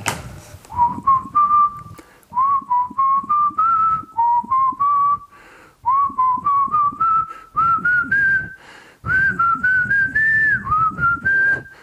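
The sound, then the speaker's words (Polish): Someone whistles a lilting tune in short melodic phrases with small pauses between them, clear, with a soft background murmur and no talking. “Ja całe życie gwiżdżę to po ojcu mam.”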